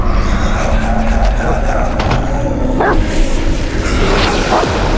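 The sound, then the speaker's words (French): A black dog named Jean barks a couple of times, short sharp yelps half-buried under a loud, steady rumble of engine and road noise that fills the whole scene. “entre vite avec le chien.”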